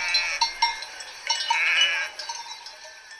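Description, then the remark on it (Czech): Several sheep from a large flock of a hundred bleat in overlapping, wavering calls, with a longer sustained bleat in the middle and shorter ones around it, moderately loud with no talking. “Ovečka patřila do velkého stáda, které mělo zrovna sto ovcí.”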